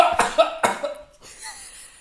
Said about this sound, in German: Und schon ist er rum am Husten.